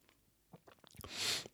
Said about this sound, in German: Ich schlürfe meinen Kaffee.